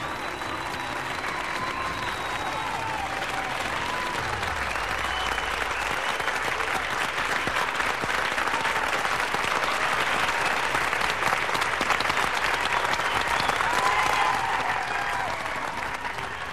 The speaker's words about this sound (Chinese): 最后，他们顺利的回到了加拿大的那一头，接受了更大、更热烈的欢呼。